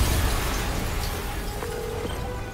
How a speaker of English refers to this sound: an explosion just... I saw it.